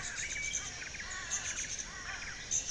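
Birds chirp and twitter continuously in a busy outdoor chorus, with rapid high tweets overlapping at a steady, moderate level and no voices present.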